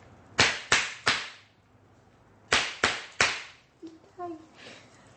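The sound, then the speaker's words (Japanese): A zen stick strikes the back of a person doing zazen during a temple zazen experience at Gyokushoin: sharp wooden slaps in two sets of three, each a loud, crisp crack with a short ring-out, separated by a pause; a faint voice murmurs briefly at the end. “座禅体験楽しみなあの瞬間もやっぱりやってまいりますそうですそして背中を前に出す右からいきます”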